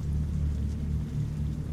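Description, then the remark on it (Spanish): Steady rain pours down as wind blows, beneath a heavy, continuous low rumble of thunder, the sound dense and unbroken for the whole moment with no voices present. “La lluvia había empapado mi bata de hospital.”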